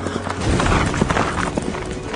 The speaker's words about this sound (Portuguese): e o barulho das suas asas era como o barulho de carros puxados por muitos cavalos quando correm para a batalha.